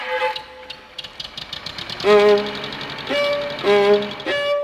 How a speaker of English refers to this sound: Forklift trucks.